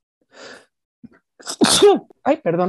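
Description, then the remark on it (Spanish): A woman sneezes once, sharply, after a soft intake of breath, then right away briefly speaks in an apologetic tone. “Salud. salud, exacto, hasta interrumpida quedé por mí misma.”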